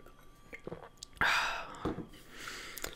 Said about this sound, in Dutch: En ik drink eerst eventjes een slokje water.